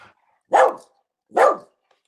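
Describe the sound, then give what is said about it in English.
A female dog barks twice, two loud woofs spaced under a second apart, lifting her front two paws off the ground as she barks, with near silence between them and no talking. “She cannot bark without leaving her front two paws.”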